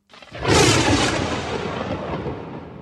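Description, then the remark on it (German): A loud clap of thunder bursts out and then rolls on in a long, rumbling decay that fades slowly, with no voices over it. “Also ist ein Donner oder was? Ja, Donner mit so einem, da also explodieren so einem Blitz.”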